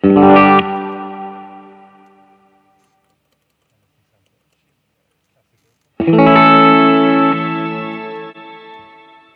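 An electric guitar played through a spring reverb effect strikes a chord that rings out into a long, washy reverb tail and fades away. After a few seconds of silence, a second loud chord rings on.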